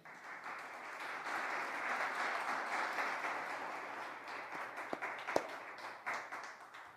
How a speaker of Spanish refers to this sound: Le damos un aplauso a Jesús.